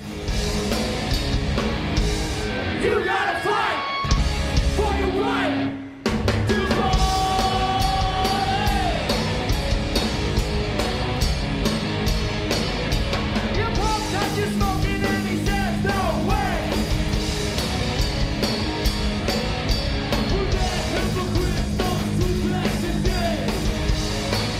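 A cover band plays loud live rap music, with steady pounding drums and shouted vocals. The music cuts out briefly early on, then crashes back in and drives on at full volume.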